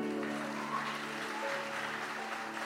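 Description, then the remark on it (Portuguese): A crowd claps steadily for an actor for a few seconds, a dense, even wash of applause that holds at the same level throughout, with a faint low tonal hum underneath and no one speaking. “Uma salva de palmas para o nosso ator.”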